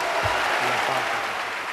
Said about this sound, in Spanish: me enorgullecen enormemente de que estemos aplaudiendo una letra como esa. Así que muchas gracias a todos.